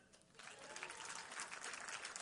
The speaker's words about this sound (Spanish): Deme un aplauso.